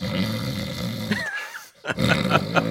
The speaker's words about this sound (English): and it was it was a bear snoring about five feet away from my feet.